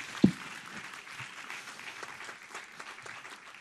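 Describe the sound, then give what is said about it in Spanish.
An audience claps steadily in a dense wash of many hands, with a single sharp, louder clap near the start. The applause holds at an even, moderate level without voices. “Un aplauso, un aplauso, eso merecía un aplauso.”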